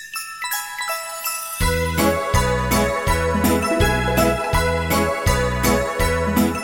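A typical Polish Christmas carol opens with a few bright, chime-like tinkling notes, then a full band enters with a steady, bouncing bass beat, played loud.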